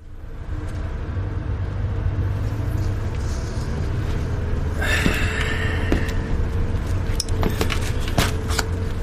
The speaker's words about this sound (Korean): 호텔로 돌아가는 버스 안이 조용했다.